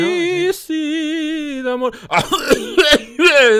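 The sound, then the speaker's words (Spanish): A voice imitates a theatre audience coughing during a pause: after a long, drawn-out vocal sound, several rough coughs burst out in quick succession, loud and raspy. “Y luego, y luego las toses.”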